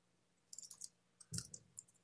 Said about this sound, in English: Sorry, I'm typing a message here to Dane Smith, who is actually back.